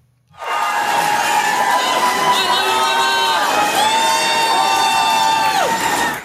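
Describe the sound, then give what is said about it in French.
A large crowd in the streets of Brisbane cheers and shouts loudly and continuously for several seconds, welcoming tennis player Rafael Nadal before a short interview, with many high-pitched screaming voices layered together, starting abruptly and holding at full intensity until it cuts off. “Alors grand, ça dépend dans quel sens, parce que si par grand vous entendez célébrité, coqueluche, superstar, ça y a aucun problème puisque voici l'accueil qu'il a eu avant une petite interview dans les rues de Brisbane, c'était hier.”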